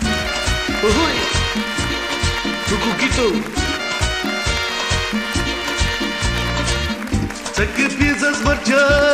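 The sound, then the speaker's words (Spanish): A full-band music track, a contest entry from a participant on a Caribbean island, plays loud and continuous on air, with a steady driving beat, punchy bass and dense layered instruments filling the whole stretch without any talking over it. “Adelante, música, maestro.”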